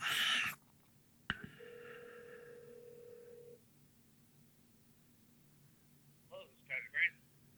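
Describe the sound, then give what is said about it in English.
A phone call connects with a click, then a single steady ringback tone lasts about two seconds before a voice briefly answers over the line. “Let me give him a live call on the podcast here.”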